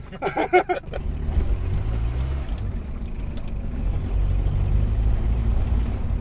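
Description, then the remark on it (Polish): The turbo diesel engine of a Polonez car with a panoramic roof, formerly a naturally aspirated diesel, drones steadily from inside the cabin while driving, a low rumbling hum with a brief burst of faint voices at the start and a couple of thin high tones later. “Zupełnie inny odgłos. W ogóle e, odkąd on jest e, turbo dieslem, mhm.”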